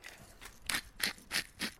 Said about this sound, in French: Le sel. moulin poivre.